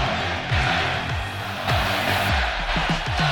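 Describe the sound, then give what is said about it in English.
A large arena crowd of Nebraska fans roars and chants "Go Big Red" in unison during a basketball game against top-ranked Purdue, with Nebraska leading 82 to 70, a loud, dense wall of voices that stays steady throughout with no break. “And you hear the go big red chant.”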